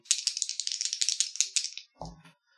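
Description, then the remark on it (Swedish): Dice rattle rapidly in a dense burst of bright clicking for nearly two seconds, then stop, followed by a single dull, low thump. No voices are heard. “Jag slog för noll tärningar så att jag hade behövt lyckas med båda.”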